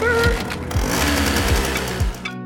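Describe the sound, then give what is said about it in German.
A small new moped engine rattles and putters loudly and steadily as the rider sets off, with a buzzy whine and recurring low throbs about every second, before cutting off abruptly at the end. “Ich bin aufgeregt, ich knatter schon mal los mit meiner kleinen neuen Biene.”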